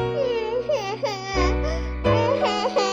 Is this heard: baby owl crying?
yes